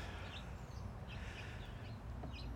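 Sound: birds calling outdoors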